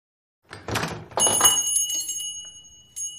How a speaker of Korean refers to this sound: 그때 서점 문에 달린 달랑이 종이 울리며 우체부가 들어왔다.